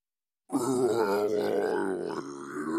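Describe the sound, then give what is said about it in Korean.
A deep, drawn-out groan of pain starts abruptly after a brief silence and strains on for over two seconds, loud, apparently voiced by a person imitating a hideous creature lying wounded by an arrow in a richly decorated house. “길동이 안으로 들어가 보니 화려하게 장식한 넓고도 아름다운 집 가운데 흉악한 것이 누워 신음하다가 그를 보고는 몸을 거동하며 말했다.”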